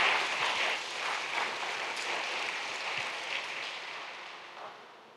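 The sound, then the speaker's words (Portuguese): A crowd applauds for Jesus together in a dense, steady wash of clapping that holds for several seconds and then tapers off slightly toward the end, with no voices rising above it. “Você pode dar um aplauso para Jesus por causa disso, amém?”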